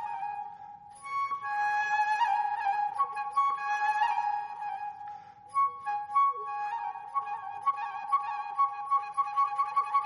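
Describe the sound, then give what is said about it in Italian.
A flute imitates goldfinch song in Vivaldi's concerto Il Gardellino, with bright sustained notes and rapid trills and chirping repeated figures over soft, low accompaniment from string orchestra and continuo, played clearly for the whole stretch. “orchestra d'archi e continuo, che, il, eh, che porta proprio il sottotitolo di Il Gardellino perché c'è l'imitazione da parte del flauto del suono, del, cioè del canto del gardellino.”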